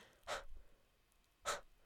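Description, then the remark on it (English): A voice imitates breathing in place of audible laughter at jokes that don't land, with two airy breaths about a second apart, each a short hushed exhale, fairly quiet, with no talking. “But the other jokes in this movie, because they don't land, it's just like you're you're just breathing, okay, you're just like”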